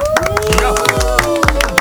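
Several people in a studio clap together in a quick, steady patter, close and fairly loud, over a musical jingle with sustained tones and a deep thumping beat.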